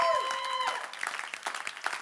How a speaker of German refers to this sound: Ich glaube, ein riesen Applaus mal.